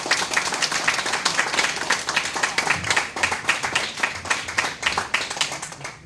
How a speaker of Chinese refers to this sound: 让我们以踊跃的掌声来欢迎张芳菲顾问。